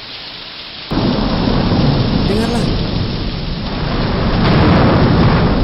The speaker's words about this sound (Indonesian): Tapi, sementara laki-laki biasa memilih cuaca yang cerah untuk berpergian kau memilih hujan petir? Ya, saya bepergian saat hujan petir.